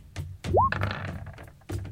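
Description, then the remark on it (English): Dice roll across a table for a short sword attack in a tabletop role-playing game, in a burst of quick clattering taps and dull thunks, with a brief rising whistle-like tone partway through before the rattling settles. “Oh, this dice, dude's about. Oh, that'll miss.”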